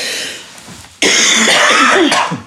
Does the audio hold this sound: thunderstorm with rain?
no